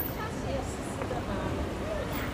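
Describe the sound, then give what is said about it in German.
Steady, busy street ambience at an intersection in Shanghai, China: a constant wash of traffic noise with soft hums of passing electric cars and scooters, plus a faint murmur of voices, all fairly even and moderately quiet. “hier sind wahnsinnig viele Menschen unterwegs, vor allen Dingen auf Rollern und in Autos. Und ich weiß nicht, ob man das hört im Hintergrund.”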